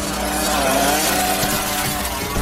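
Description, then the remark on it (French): A loud motorcycle engine roars steadily with a rising whine, revving hard and pulling away, sustained for the full couple of seconds. “Il faut dire que narguer les flics en moto dans le sud de Broadway pour ensuite les semer en roues arrière a l'avantage de faire parler de soi.”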